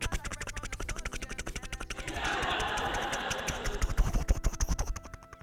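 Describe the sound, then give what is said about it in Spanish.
A voice imitates a helicopter with rapid, rhythmic buzzing pulses, shifting into a breathy rushing whoosh midway, then back to choppy fluttering beats, moderately loud. “No me sale el, el, helicóptero por más que intento.”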